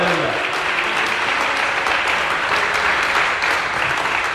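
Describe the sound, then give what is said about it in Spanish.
An audience applauds the Lord loudly and steadily, a dense wash of many hands clapping that holds at full strength for several seconds with a few voices faintly mixed in underneath. “Aplauda fuerte, hermano.”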